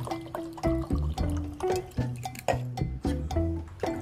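Water pours steadily into a glass, a gurgling stream with rising tonal bubbles as it fills, a few faint clinks along the way.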